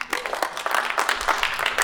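An audience applauds to welcome a free solo climber as the speaker, in a steady, dense patter of clapping that holds at an even, moderate level through the whole short stretch, with no voices standing out.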